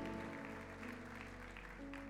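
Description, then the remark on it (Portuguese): A church audience applauding the Lord for the life of Márcio, a steady wash of many hands clapping continuously for a couple of seconds, with sustained musical tones humming underneath. “Vamos aplaudir o Senhor pela vida desse homem de Deus também, o Márcio.”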